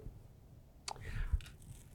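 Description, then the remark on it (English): A quiet sip of coffee: a brief wet click of the lips, then a short airy slurp, over a soft low background rumble with no talking. “Excuse me as I sip on this coffee.”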